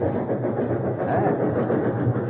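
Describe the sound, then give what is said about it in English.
An express train's steady rumble fills the whole stretch as it comes to a stop at a town, a continuous low roar of wheels and engine with no voices and no clear change in pace. “Why, we seem to be stopping. I wonder why. We're coming to a town. But I don't believe it's a scheduled stop for this express train.”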